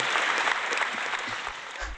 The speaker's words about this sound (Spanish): Ahora sí que como dicen los artistas, el aplauso es para el público.